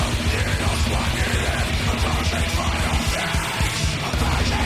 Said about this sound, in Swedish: Eh, han, han skriker sådär att... Han skriker med låg volym.